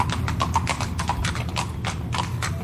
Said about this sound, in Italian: sta arrivando il cavallo della Rai per riportarmi a casa